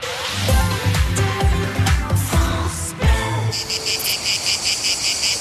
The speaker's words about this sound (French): Infos, circulation, coins de nature et accents de chez nous, astuces et artisans, chant des cigales, bonne humeur et réveil tonique.